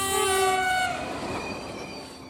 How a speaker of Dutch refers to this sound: Eerst het gerinkel van de bel. En dan daarna de trein die aankomt bulderen. maar dan een hele harde toeter. En niet zoals hij ze noemde vrolijke toetertjes van een trein die ergens langs de weg iets ziet, maar de harde toeters.